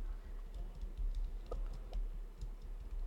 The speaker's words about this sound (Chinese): 你在打字，我听到了。